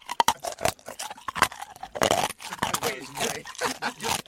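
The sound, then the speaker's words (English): Crunchy chewing of Rhetoric Coffee beans: irregular sharp cracks and grinding bursts that come in quick clusters for several seconds, loud. “Coffee so good, you can chew it”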